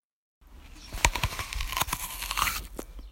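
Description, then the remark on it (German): A crisp crunch as teeth bite into an apple, followed by a couple of seconds of wet tearing and crackling chewing noises, with no voices. “Und ähm, ich kann dir euch ja zeigen, weil wir haben probiert, dieses Geräusch zu machen, das gute Geräusch des Apfels, wenn man in ihn reinbeißt.”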